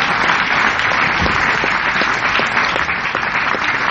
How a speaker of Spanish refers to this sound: Desen un aplauso ustedes mismos por esta gran